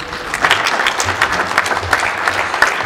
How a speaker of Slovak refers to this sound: Poprosíme potlesk.